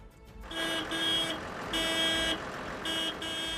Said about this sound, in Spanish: Bocinas, coches y camiones parados, ruido del motor al ralentí como sonido del cabreo de los sindicatos que se sienten ahogados por una política agraria que no compensa, dicen, la subida de precios y les llena de normativa y papeleo.